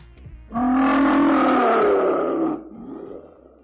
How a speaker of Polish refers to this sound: tak, to jest odgłos Yeti. Ciężko było go nagrać, wyobraź sobie